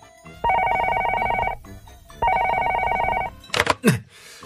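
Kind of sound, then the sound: signal or alarm, telephone ringing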